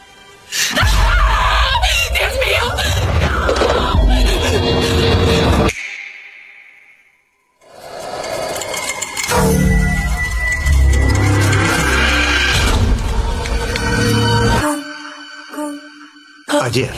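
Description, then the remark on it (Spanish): Audio from the Spanish-dubbed version of a horror film, with loud, harsh screaming and dense dramatic sound, breaking off into a brief hush with a fading tone before the chaotic screams and noise surge back. “estamos escuchando en la versión doblada en español de esta película de terror”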